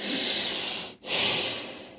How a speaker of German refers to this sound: atmet wieder ein und aus.